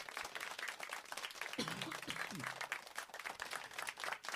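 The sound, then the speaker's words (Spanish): Steady, dense applause from a crowd fills the whole stretch at an even level, with a brief voice rising faintly beneath it partway through. “Pido un aplauso. Oye, esto no es el aplauso, esto es la campana. El, aplaudanme.”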